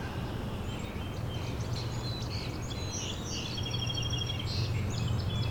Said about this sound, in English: was in northern Parula. It's right in front of you. that uh, rapid trill ending in a zeet.